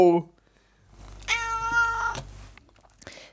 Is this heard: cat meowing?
yes